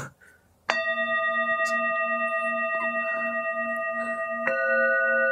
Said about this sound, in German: Zwei Gongs machen wir.